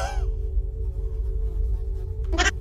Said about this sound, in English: Dude, let me see what's going on with the bugs. They're making a lot of noise over here.